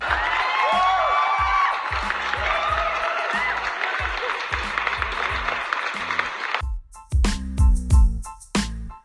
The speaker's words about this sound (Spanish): Aplausos, por favor, para ellas.